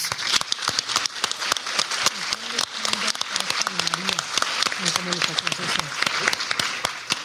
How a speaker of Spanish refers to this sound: Un aplauso para todas y todos.